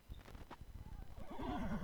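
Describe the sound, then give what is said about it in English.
A few hollow hoof clops sound at first, then a horse lets out a loud, wavering whinny that rises and trembles to the end, with no voices. “They led old Jim to a pond where every one of the villagers' horses was grazing.”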